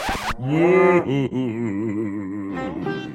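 cow mooing

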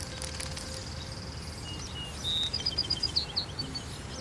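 birds singing

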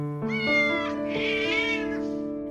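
cat meowing

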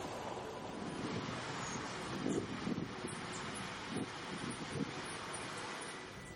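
wind blowing

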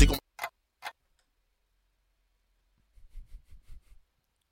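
pendulum clock ticking

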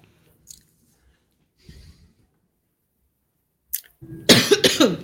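coughing

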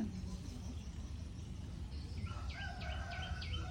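birds singing

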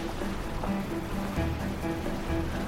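stormy sea waves crashing

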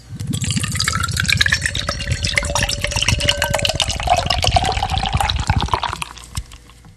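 beer poured

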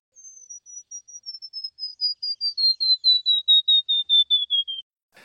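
warbler song

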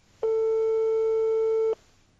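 telephone ringing tone

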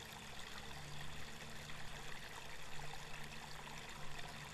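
flowing water

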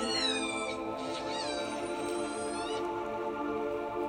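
whale song

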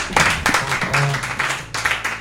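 clapping

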